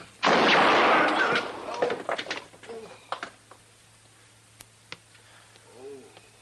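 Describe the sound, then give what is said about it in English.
A single loud gunshot cracks out, hitting a gun, and rings off with a long metallic, reverberant tail, followed by a few sharp clicks and a faint murmuring voice near the end. “You're not hurt. I hit the gun.”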